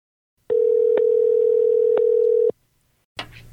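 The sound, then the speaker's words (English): A telephone dial tone as a call is being placed: a loud, steady, low-pitched hum holding one pitch for about two seconds, then cutting off, followed by a short pause and a brief burst of line noise. “Dial up, Dave.”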